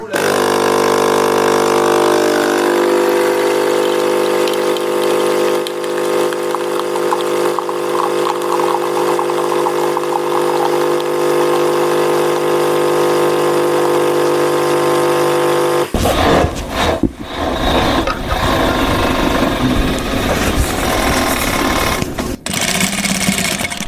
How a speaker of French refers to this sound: on entend le, bruit des, machines à coudre parce qu'on rentre dans un atelier justement de, couture. Euh, c'est l'atelier chantier insertion.